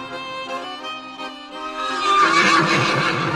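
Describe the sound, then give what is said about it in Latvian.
A red stallion neighs loudly and at length, a harmonic whinny that swells and grows more strained and intense toward the end, alone without any talk. “viņiem laiku pa laikam piebalsoja sarkanais ērzelis ar savām varanajām bazūnēm.”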